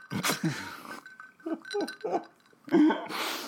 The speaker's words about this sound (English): You hear my glass clinking the ice.